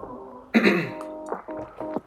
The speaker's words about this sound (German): Aber ich glaube, oh, na, das ist ganz schlimm, die ganze Zeit räuspern